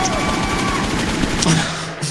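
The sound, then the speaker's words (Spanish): A loud, sustained burst of rapid gunfire sound effects, shots rattling in quick succession for about two seconds, with voices faintly mixed in underneath. “con balazos.”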